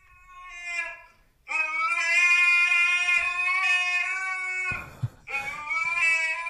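A fat husky in a video being played howls in long, drawn-out tonal wails: a short cry, then a sustained howl lasting several seconds, a brief break, and another rising howl, loud with no talking.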